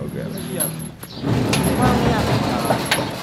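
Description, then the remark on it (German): A woman pushes open the sliding door to the rehabilitation room of a makeshift clinic in Mesot with a brief clatter; it rolls along its track in a steady rumbling scrape, with a few light metallic knocks and faint background voices. “Sie schiebt die Tür zum Reha-Zentrum auf, einem Raum mit ein paar Fitnessgeräten.”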